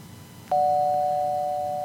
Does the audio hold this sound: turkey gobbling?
no